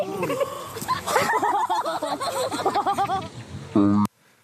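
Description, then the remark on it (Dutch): A person rides down a bumpy, wavy playground slide, their voice jolted into a fast, rhythmic string of yelps and grunts with each bump. It ends in a short sustained cry before cutting off. “Want er was dus iemand die had gefilmd dat iemand daar vanaf ging En eh, dat, dat klonk ongeveer zo.”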